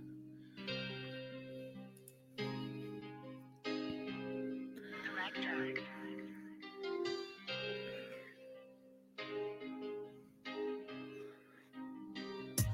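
A rap track plays at full volume, with rhythmic vocals delivered in short bursts over sustained bass notes and a steady beat, filling the whole stretch without pause.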